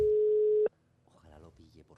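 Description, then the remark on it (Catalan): A telephone call tone on speakerphone: one loud, steady, mid-pitched beep holds for under a second, then cuts off abruptly, leaving faint murmured voices talking. “No, No, provar, segon pip, moment, sisplau, silenci.”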